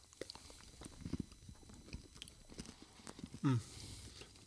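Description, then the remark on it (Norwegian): Quiet chewing and crunching of a Toblerone chocolate bar, with soft irregular bites and mouth sounds, and a brief louder hum-like voiced sound near the end. “merker umiddelbart at jeg sliter litt med den her, for Toblerone er sånn tyggesjokolade.”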